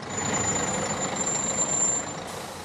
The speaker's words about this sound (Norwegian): Og så kommer bussen til endeholdeplassen i Bristol.